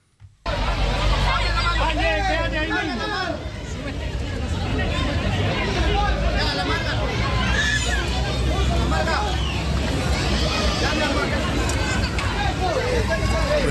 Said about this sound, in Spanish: Así se escucha este campamento de 1.500 migrantes indocumentados en Irapuato.